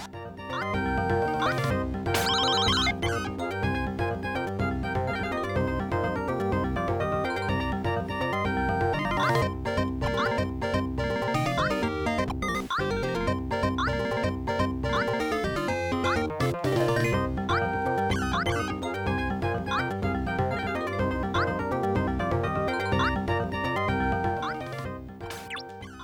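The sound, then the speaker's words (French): Upbeat video game music for the game's final level, a lush lost jungle island, plays continuously, with dense layered melodies over a steady rhythmic bass, at an even, fairly loud level before tapering off at the very end. “Tiens, on va écouter la musique.”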